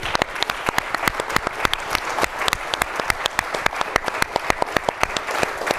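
A crowd applauds a guest speaker steadily, dense overlapping claps forming a continuous bright patter with sharper individual claps standing out, holding at an even level throughout without any talking.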